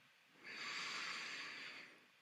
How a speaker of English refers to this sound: Begin breathing more deeply. Notice how the body feels, how the mind feels. And take a final deep breath, breathing in